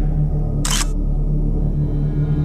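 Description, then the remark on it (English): A single camera shutter fires in the dark, a sharp mechanical snap lasting a fraction of a second, against a steady low electrical hum with no talking. “Okay. Let's start flashing.”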